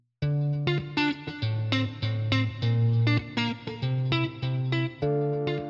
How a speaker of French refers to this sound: tu entends la sonnerie